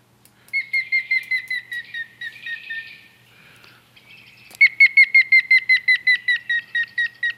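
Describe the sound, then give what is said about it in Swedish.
A grey-headed woodpecker calls: a long series of clear, evenly spaced whistled notes, starting loud and slowly falling in pitch. A shorter run comes first, then a brief pause before the main series. “Hade vi en gråspett där så ska vi höra lite hur den klagar.”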